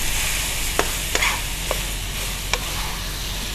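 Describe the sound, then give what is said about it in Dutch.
Meat being browned golden sizzles steadily in a hot pan, a constant bright frying hiss, while a utensil scrapes and taps the pan four times at irregular intervals as it is stirred. “Um, ehm, bak, bak, het, eh, bak het vlees even goudbruin.”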